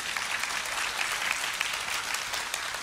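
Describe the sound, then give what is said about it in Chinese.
Steady audience applause, a dense wash of many hands clapping at an even, moderate level for the whole stretch, with no voices standing out. “这时候应该要有掌声的，你知道吗？”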